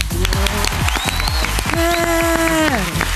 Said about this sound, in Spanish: Fuerte aplauso